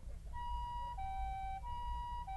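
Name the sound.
distant ambulance siren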